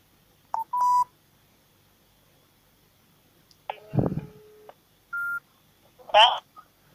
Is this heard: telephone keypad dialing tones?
yes